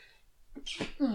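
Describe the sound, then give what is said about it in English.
A single sharp, fairly loud sneeze, bursting out with a hissy breathy blast and a brief voiced tail. “Bless you.”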